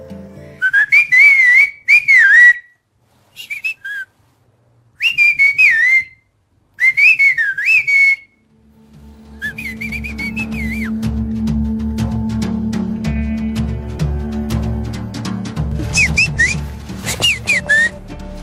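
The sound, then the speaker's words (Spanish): A person makes several loud Mazatec whistled calls with sliding, warbling pitch toward a cousin outside; after a pause, the cousin answers with fainter whistles without seeing the caller, over a steady rumble of outdoor background noise. “Inclusive ahorita puedo hacer un chiflido hacia mi primo que se encuentra allá afuera. Sin verme me puede contestar.”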